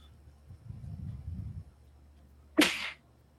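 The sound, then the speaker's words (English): A single sharp sneeze bursts out, a sudden airy blast after a low, muffled intake of breath, then quiet. “Bless you.”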